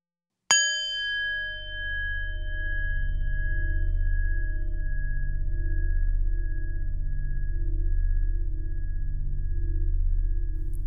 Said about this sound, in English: At the sound of the bell, we will begin.